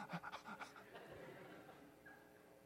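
A dog named Woody pants heavily in quick, rhythmic breathy bursts, fairly loud at first, then the panting trails off into softer, fainter breaths with no talking.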